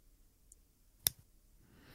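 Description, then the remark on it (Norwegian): A single crisp click from a retractable Pilot gel pen with a rubberized grip, sharp, with a faint tick just before it and a soft echo right after. “Og så har den veldig sånn tilfredsstillende eh, klikklyd.”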